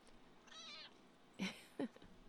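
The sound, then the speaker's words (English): An old male cat lets out a drawn-out, whiny, cranky meow, then two short, louder grumbling meows in quick succession, with no one talking. “He's such a good boy. I love this cat.”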